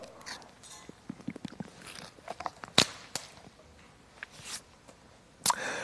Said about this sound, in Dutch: neem even een slok water.